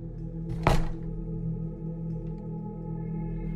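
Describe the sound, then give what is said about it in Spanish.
A front entrance door, unlocked with a key, is closed lightly with one short, dull thunk, a soft knock-like impact over a steady low hum. The rest is quiet, with no voices. “Acto seguido abrieron la puerta y la cerraron levemente, pero con un claro sonido.”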